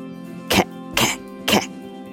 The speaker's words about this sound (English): Until last month, when Ma had a fishbone stuck in her throat. She kept coughing and coughing to clear her throat.